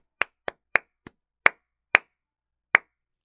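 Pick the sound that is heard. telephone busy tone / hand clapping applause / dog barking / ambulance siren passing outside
hand clapping applause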